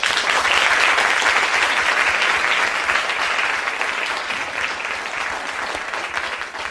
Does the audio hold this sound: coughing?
no